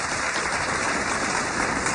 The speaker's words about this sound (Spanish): Qué bonitas palabras inspiradoras esta noche con Sara Corrales. Sí, aplauso para Sara.